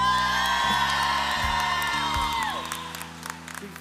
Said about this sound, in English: But can you guys, we're going to practice real quick, okay? On the count of three, give me your best cheer, okay? Ready? One, two, three.